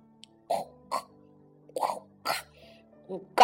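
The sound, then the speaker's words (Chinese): A human voice imitates a duck snoring: six short, raspy, nasal bursts in an uneven rhythm, each a quick breathy honk separated by brief pauses, moderately loud with no other sounds. “对了，是鸭子，鸭子也在打鼾呢。”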